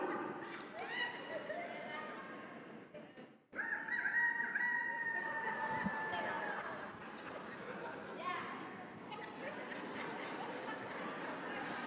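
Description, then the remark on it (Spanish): A voice imitates a rooster's crow, a long drawn-out cock-a-doodle-doo held high and loud, with chatter and background voices around it. “Alguien que le dé una ofrenda para que siga el gallo cantando, por favor.”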